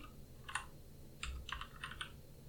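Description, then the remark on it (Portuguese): A few dull knocks and clicky taps land unevenly on the microphone, some with a low thump, like the mic being bumped or handled, with no talking. “Batendo meu microfone mais.”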